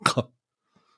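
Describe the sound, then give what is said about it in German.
A single sharp, loud sneeze, bursting out in two quick rushes of breath before everything falls quiet. “Gesundheit.”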